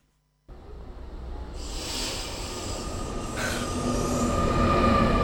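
A train pulls into a station, its rumble swelling steadily louder with a hissing rush of air and a faint squeal of brakes or wheels rising toward the end.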